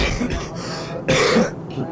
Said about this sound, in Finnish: Niin, matka on sujunut oikein mukavasti ja pitää yskiäkin vähän tästä taas. Kuuluu ammattiin.